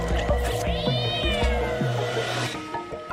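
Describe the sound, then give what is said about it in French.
A cat lets out one long, drawn-out meow that rises and then slowly falls, loud, over a low background hum with no one speaking. “Tout le monde aime les chats, vous savez ça.”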